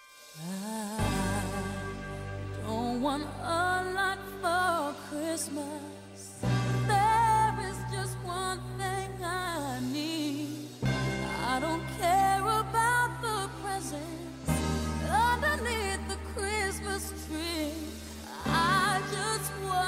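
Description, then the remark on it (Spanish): A Christmas song plays at full volume, with a melodic singing voice gliding over steady, sustained bass notes and rich harmonies, continuing without pause. “Y vámonos a la primera canción, que es esta.”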